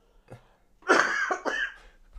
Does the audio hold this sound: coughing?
yes